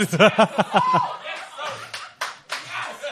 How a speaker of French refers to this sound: Vous êtes malsain d'applaudir ça.